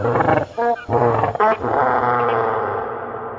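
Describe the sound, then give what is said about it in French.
A huge, imagined T-Rex roar as it opens its enormous, terrifying jaws: deep, loud and rumbling, with a few short guttural bursts giving way to one long, sustained bellow that slowly fades at the end. “Au moment d'ouvrir son énorme mâchoire terrifiante, le T-Rex poussera peut-être un nouveau cri surprenant.”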